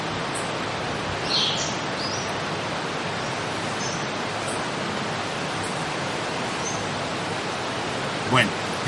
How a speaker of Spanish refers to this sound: miren el viento. ¿Lo sienten? Ahí está. Entonces nada más sientan el viento.